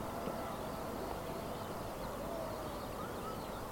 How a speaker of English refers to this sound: But above the whispering grasses, just distant behind me, are the sounds of the revellers at the henge, the drumming and excitement growing as the sunrise approaches.